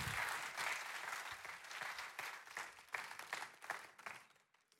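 An audience applauds steadily as a speaker is welcomed onto the stage, dense overlapping claps, then the clapping thins out and fades toward the end.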